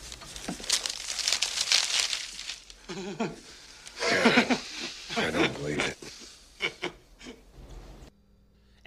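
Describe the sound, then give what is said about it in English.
Paper crinkles and crumples loudly for a few seconds, a rough rustling pulled downward as Burt Reynolds pulls down the paper, which hides only his finger, not a gun; then people talk over fainter rustling until a brief quiet at the end. “the guy backs off, and Burt Reynolds pulls down the paper, and it wasn't a gun.”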